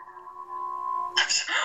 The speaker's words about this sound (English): I'm so, sorry, my dogs are howling in the background.